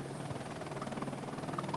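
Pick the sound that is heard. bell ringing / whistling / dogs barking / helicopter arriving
helicopter arriving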